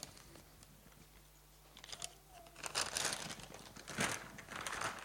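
A plastic bag crinkles and rustles as it is handled, quiet at first and then in louder bursts of crackling that come and go over several seconds.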